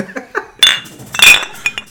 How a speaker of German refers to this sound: komm, dann ja, stoßen wir nochmal an.